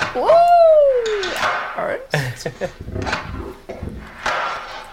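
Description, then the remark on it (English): A harsh, distorted crunch, created with the Devil-Loc plugin made by Sound Toys, hits loudly like a door slamming or wood being struck, after a rising, whining tone, with scattered noisy bursts trailing behind. “Yeah, it does sound a bit like somebody kind of slamming a door or hitting some wood.”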